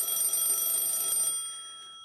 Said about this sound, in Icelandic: ég svafi gegnum allar vekjar klukkur og hans uh, svaraði ég geimi síma minn með vekjarklökunni á öðrum staði herbygginu þannig ég þarf að standa upp til þess að sækja og slökka vekjarklökunni